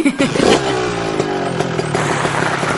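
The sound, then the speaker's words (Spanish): A large motorcycle ridden by a young man arrives and parks relatively near; its engine roars loud, revving with a steady rumbling throttle and some mechanical clatter, with no voices. “Era una moto grande, conducida por el más común de los chicos. Se parqueó relativamente cerca”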